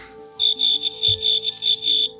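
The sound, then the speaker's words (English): Cricket-like chirping from a played recording, not actual crickets, pulses in a steady, rapid rhythm, high-pitched and fairly loud, about eight bursts over two seconds with a faint low hum underneath and no voices. “Is that a cricket? It sounds like a cricket. It's not a cricket.”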